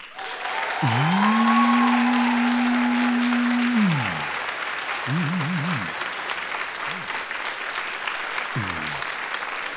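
A live audience claps steadily for about ten seconds, voting by applause for a contestant in a show: a dense crackling wash of applause, with a long sustained whistle-like cheer early on and a few shorter wavering whoops afterward.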